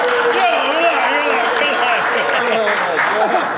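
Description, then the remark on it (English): A crowd claps and cheers steadily for EF Venues, a dense wash of applause layered with many overlapping whoops and shouting voices, holding loud and even from start to finish. “but, hey, man, let's make some noise for EF Venues”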